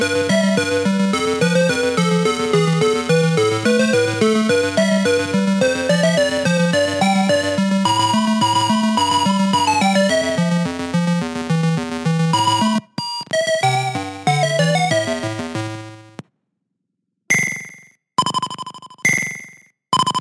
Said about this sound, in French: Eh bien, je viens de vous faire écouter euh, l'introduction et le premier, un peu le premier stage d'Arcanoid.